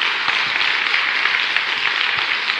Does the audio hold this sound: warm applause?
yes